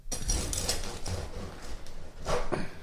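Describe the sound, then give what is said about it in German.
A knife saws into a crusty loaf of bread, one of two loaves, one made with last season's flour and one with new-harvest flour, with repeated rough, crackling strokes at a steady back-and-forth rhythm and no voices. “Schneid mal beide an.”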